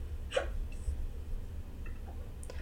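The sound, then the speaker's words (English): A single sharp hiccup pops out near the start, fairly loud, followed by quiet room tone with a couple of faint small noises and a soft breathy catch at the end. “I have the hiccups”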